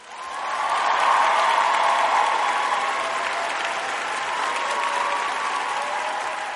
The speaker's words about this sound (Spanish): Espérate que busque un sample de un aplauso. Un aplauso, por favor, para el señor Magneto.